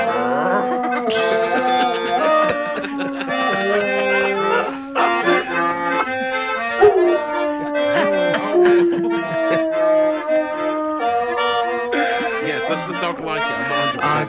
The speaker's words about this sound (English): yes, but I think the dog is improving. Uh, here, they, here he is singing